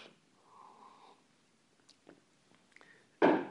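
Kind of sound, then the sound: food or drink, sipping tea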